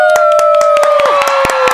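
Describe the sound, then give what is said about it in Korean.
Steady, rhythmic, loud hand claps ring out beneath a long sustained cheering whoop that slowly sinks in pitch, as the host of the year-end special Mogisaeng Lunch Show, a live concert broadcast, asks listeners to clap and cheer. “자, 즐거우시다면 박수와 함께 함성!”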